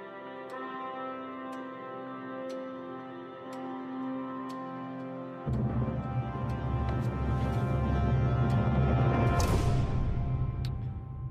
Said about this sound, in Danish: Øh, og vi hører lige en trailer her i baggrunden. Yes, den kommer kørende. Den starter lidt langsomt, men nu kan den, den kommer lige øh, kommer her bag os.